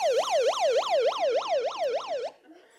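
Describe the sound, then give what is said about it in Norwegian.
A loud built-in electronic siren on a device, switched on by the speaker, wails in rapid rising-and-falling sweeps, about eight quick cycles in a steady rhythm, harsh, then cuts off abruptly, leaving faint quiet. “Og hvis Gud ikke hører med en gang, så er denne her så lur at Det er òg en sånn innebygget sirene, så hvis jeg ikke får det som jeg trenger med en gang, så kan jeg skru på den.”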